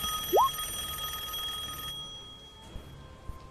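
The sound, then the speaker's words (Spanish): A house telephone rings somewhere fairly far off in the house, one sustained, bright electronic trill for about two seconds, then cuts off, leaving near-silence with a couple of faint clicks. A brief rising chirp briefly overlaps the ring's start. “¿Suena el teléfono de Silver?”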